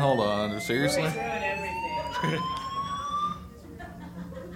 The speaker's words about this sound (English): Are you serious? Are you serious? And that is the fire alarm. Hold on